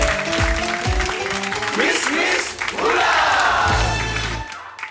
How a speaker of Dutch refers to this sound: Uiteraard geven we een applaus.